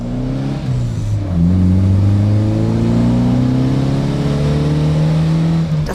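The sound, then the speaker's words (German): A combustion-engine car revs up, its low droning note climbing in pitch and holding loud and steady for several seconds, with no voices. “Autos im Moment noch zu 95 Prozent mit Verbrennermotor schlecht fürs Klima sind, ist auch klar.”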